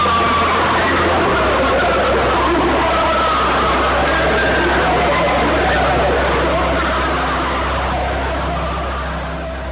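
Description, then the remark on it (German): A 17-second recording from a microphone lowered into a deep, hot borehole: a dense, unbroken roar of overlapping wailing, scream-like tones over a steady low hum, loud throughout and slowly fading in the last couple of seconds. “Die Technik hielt der Hitze allerdings nicht lange stand, sodass lediglich eine 17 Sekunden lange Tonaufnahme gemacht wurde.”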